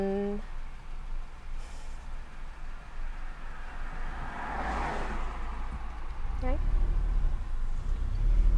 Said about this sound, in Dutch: Sorry, ik uh, rij in de auto en ik dacht iemand wil oversteken, maar volgens mij Wilt wilde niet oversteken, dus ik ben weer doorgereden.